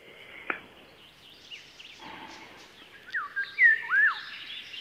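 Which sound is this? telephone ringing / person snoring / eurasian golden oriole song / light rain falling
eurasian golden oriole song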